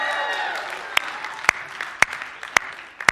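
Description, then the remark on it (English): A church audience at New Life cheers and whoops, with a busy wash of clapping and several sharp, louder claps standing out at roughly half-second intervals. The cheering is fullest at the start. “So, hey, listen, I just need to know right now how many of you guys are excited to be at church worshiping Jesus today? Come on, let me hear you.”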